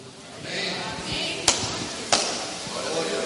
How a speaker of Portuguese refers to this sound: Bate pé no chão, dá um glória a Deus bem forte.